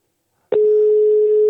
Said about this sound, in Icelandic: þá búist að ringja bara í Svavar á Grænlandi